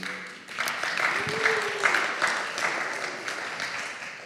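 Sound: audience applause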